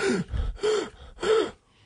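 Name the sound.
imitated gasping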